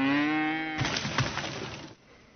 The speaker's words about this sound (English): who doesn't love a, an exploding cow seriously